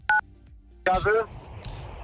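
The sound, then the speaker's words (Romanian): A short electronic phone tone, then a caller from Galați on a car kit bursts in over a telephone line for a moment and cuts out into hissy line noise, the connection breaking up. “Stai, stai puțin, ești pe carchit și te întrerupi.”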